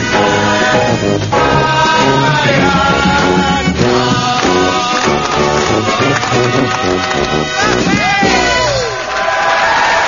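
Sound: crowd clapping and cheering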